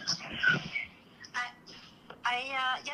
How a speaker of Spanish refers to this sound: algo pasa que te escuchamos con mucho ruido, no sé si puedas mejorar la señal, ahí creo que está rozando el teléfono con la camisa o con algo.